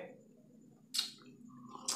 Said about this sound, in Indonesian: Ngopi. Gue seruput dulu ya.